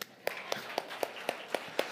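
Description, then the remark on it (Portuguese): An audience claps for Jesus together in a steady rhythm, seven sharp, evenly spaced claps over about two seconds against a low background hum, with no voices heard. “Pode aplaudir Jesus.”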